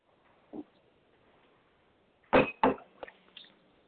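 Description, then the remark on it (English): Faint background hiss, then a short cluster of scuffing, rustling bursts, two louder ones close together followed by a couple of softer ones, like something being handled near a microphone, from a participant left unmuted in a meeting. “Somebody is unmuted and we can hear you rustling and Please check your phones, everyone.”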